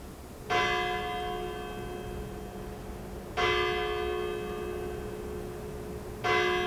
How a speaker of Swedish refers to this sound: Klockan nio ringer kyrkklockorna och sorlet på kyrkbacken tystnar.